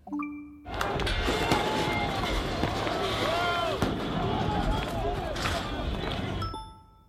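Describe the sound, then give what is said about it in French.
A dense crowd of many voices at a social movement protest shouts and chants together in a loud, continuous roar lasting several seconds, after a brief electronic jingle of stepped tones. “Un mouvement social, bravo, 7 à 4, Ariane, Marie-Hélène, on écoute ensemble.”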